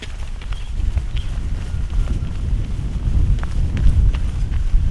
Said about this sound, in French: devant moi, il faut que je cours pour la rattraper.